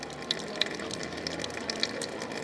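Healing mineral spring water is poured for guests in a steady, soft stream, with a faint fizzing hiss and a few small crackling clicks. It sounds fairly quiet, and no one speaks.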